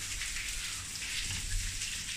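Steady rain pours down in a continuous hiss, with dense drops pattering on a surface. No voices, just the constant wash of falling water.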